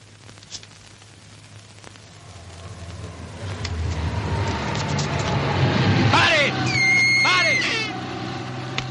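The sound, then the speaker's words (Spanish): A car passes on a street as a man stands in the middle of the roadway, its low engine rumble and road noise swelling steadily, then easing slightly, with a brief high-pitched squeal, like brakes, near the end. “Se queda parado en mitad de la calzada aguardando el paso de otro coche.”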